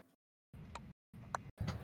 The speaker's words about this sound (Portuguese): Segue o balançado. Segue o, o relógio. Segue o balançar dele.